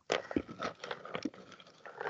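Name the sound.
chewing peanuts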